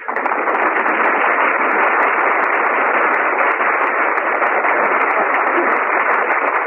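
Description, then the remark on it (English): A studio audience applauds loudly and steadily after Jack Benny is introduced on a radio broadcast, a dense crackling wash of clapping that holds at an even level for the whole stretch, with a thin, band-limited old-radio quality and no talking. “He got more applause than if he were here.”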